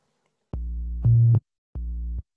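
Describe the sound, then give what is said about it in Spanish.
Low, steady sine-wave synthesizer tones played in the low register of a keyboard, a few sustained notes separated by short silences, with one brief louder note in the middle. No voices. “No será lo mismo si es que yo me voy a la zona grave, pues voy a tener sonidos debajo.”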